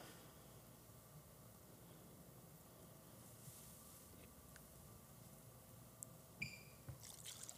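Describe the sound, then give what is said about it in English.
Water pours in a steady, continuous rush, fairly quiet and even throughout, with a couple of brief splashy clinks near the end and no voices. “It's pouring over, it's pouring over, it's pouring over, it's pouring over.”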